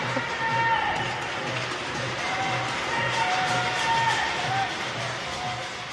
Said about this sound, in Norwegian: Eh, det at de måtte være innestengt så lenge, det skapte enormt raseri. Og det så vi på videoer fra Shanghai. Folk som skrek ut i nattemørket fra leilighetene sine.